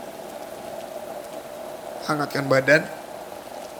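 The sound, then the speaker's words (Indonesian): A steady, soft hiss of light drizzle fills the background throughout, with a person speaking briefly over it near the end. “Ku ambil kopiku, ku seduh dalam alunan rintik hujan.”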